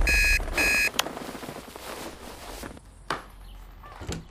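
An alarm clock rings in two short bursts of loud electronic beeping, then a click as it is silenced with a quick button press, followed by faint rustling and a couple of soft knocks.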